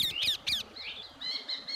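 A parrot squawks in harsh, repeated bursts, three quick raspy calls followed by a few shriller, drawn-out cries, moderately loud with no one talking.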